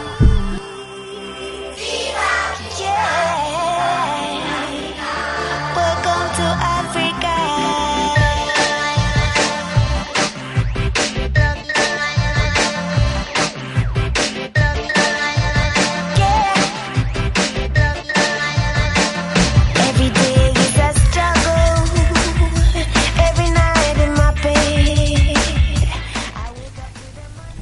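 A song plays for nearly half a minute, loud and steady, with a pulsing drum beat under layered melodic instruments, then cuts off at the end. No one speaks over it.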